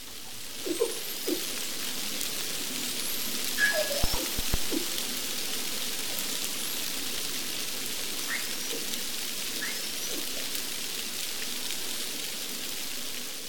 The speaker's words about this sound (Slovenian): posnetek zvokov, ki so jih spuščali delfini, ko so se približali enemu izmed hidrofonov. Pozorno prisluhnite.